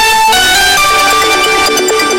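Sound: telephone ringtone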